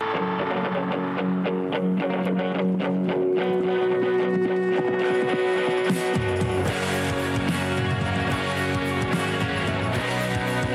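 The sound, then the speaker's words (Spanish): A rock song plays on the radio loudly and continuously, with distorted electric guitars and a thick bass and drums that swell in partway through; no one speaks over the music. “estamos escuchando …, que es el último adelanto antes de publicar nuevo álbum de …”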